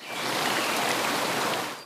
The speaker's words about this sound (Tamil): அவற்றுடன் சேர்த்து காட்டின் இடையில் ஓடும் நதிகளின் சலசல ஓசை